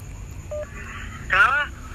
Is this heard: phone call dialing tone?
yes